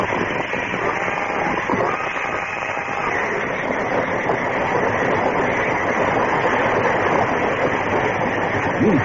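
A speeding train roars past on the tracks: a loud, continuous rushing rumble with faint rhythmic clatter, steady throughout, with no voices.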